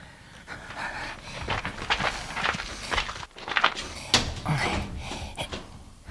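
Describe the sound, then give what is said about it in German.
Someone tries the handle of a locked staff-only door, jiggling and rattling it several times and producing clustered metallic clicks and knocks, with heavy breathing in the background and no talking. “Da hinten ist noch eine Tür. Da steht nur für Personal.”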